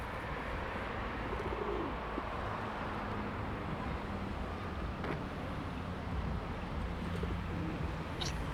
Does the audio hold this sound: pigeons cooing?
yes